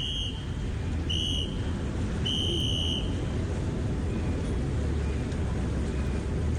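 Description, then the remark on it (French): Busy swimming pool ambience with a steady rushing wash of water and waves, as three shrill whistle blasts ring out in the first few seconds before the wash continues alone. “Vous entendez le bruit des vagues”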